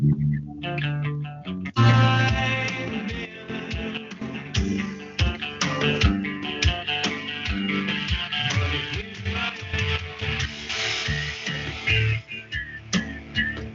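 A full, loud rock track plays steadily: a dense band mix with driving drums and distorted guitars. It starts quieter, then kicks in fully after a couple of seconds. No one speaks.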